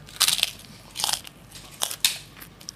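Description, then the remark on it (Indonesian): Crisp kerupuk crackers being crunched, with four or five sharp, crackly bites spaced unevenly and quiet pauses between them; nobody speaks. “Gua duduk begini, dia ke dapur ngambil kerupuk.”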